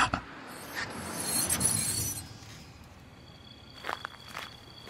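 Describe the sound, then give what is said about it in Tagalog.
Footsteps of people walking at a steady pace toward a house after getting off a jeep, with crunchy scuffing textures and a few sharper steps near the end, fairly quiet, with no talking. “Nang makababa kami at naglalakad na papunta sa mismong sadya.”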